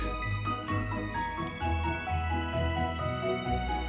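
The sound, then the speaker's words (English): A small bell on the collar of Smokey, a studio cat wearing Christmas gear, jingles in light, irregular bursts, layered over a steady low rumble and a busy tonal background, with no one speaking. “I want to call him Jingle Balls.”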